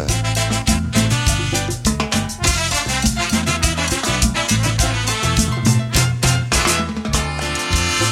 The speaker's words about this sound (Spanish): esa gran orquesta como es …